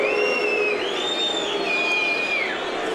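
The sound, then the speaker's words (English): A stadium crowd of Wrexham fans whistles at former Wrexham striker Matt Derbyshire as he walks up with the ball to take the first penalty: several shrill, sustained whistles slide up and down in pitch over a steady, dense roar of fans, with no one speaking. “The Wrexham fans applauding Mark Powers and now whistling their erstwhile hero, Derbyshire.”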